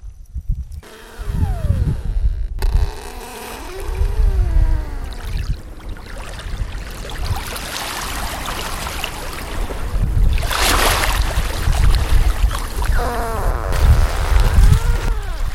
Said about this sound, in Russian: Вы слышите, как скрипят арктические льдины на побережье одного из фьордов на острове Шпицберген.